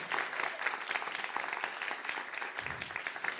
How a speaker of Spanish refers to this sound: Vamos, denle un aplauso fuerte a Jesús por eso.